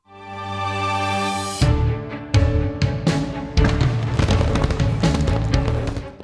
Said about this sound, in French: Voilà, avec les feux d'artifice derrière, évidemment, euh, c'est la bande, euh, c'est la, bande son euh, sans les, sans les paroles. C'est la, bande instrumentale.